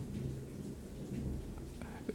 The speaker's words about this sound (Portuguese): Olha. Trovão aí, ó.